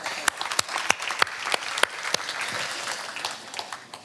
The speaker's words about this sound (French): Qui a vraiment jeûné la semaine dernière Waouh, waouh, vous pouvez applaudir pour vous.